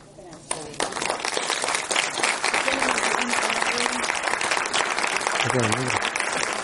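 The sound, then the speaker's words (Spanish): An audience breaks into applause after a quiet half-second, a dense, steady clatter of many hands clapping that holds for several seconds while voices speak over it. “¿Te has esperado que aplaudamos o qué?”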